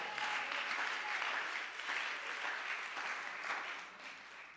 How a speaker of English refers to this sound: If you believe that, would you clap your hands to the Lord?